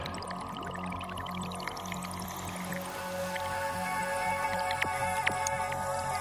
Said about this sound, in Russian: Там было сыро. Я услышал, как по стене стекает вода и почуял ветер на лице, что было странно, потому что внутри горы ветра нет.